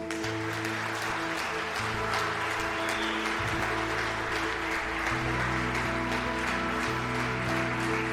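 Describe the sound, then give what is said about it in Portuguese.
An audience at an Easter church service applauds God with steady, dense clapping that lasts throughout, accompanied by sustained low chords from a keyboard or organ. No one speaks. “Vamos aplaudir a Deus.”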